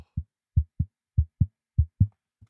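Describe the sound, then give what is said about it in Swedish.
A heartbeat held over the microphone: deep, muffled lub-dub thumps in a steady rhythm, about four beats in under three seconds, with no voices. “Ja, är det heartbeat-tävling nu igen?”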